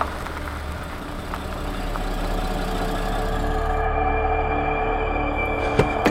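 A car engine idles nearby with a steady low rumble and hum, holding constant throughout, followed by a couple of short sharp clicks near the end, as two dark cars park on a residential street in Nobleton, Toronto, around 10 p.m.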